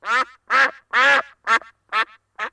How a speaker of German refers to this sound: Im Michaelibad in Ramersdorf, da war das heute Morgen aber so, als die MitarbeiterInnen reinkommen, denn eine Ente zieht dort ganz entspannt ihre Kreise im Becken.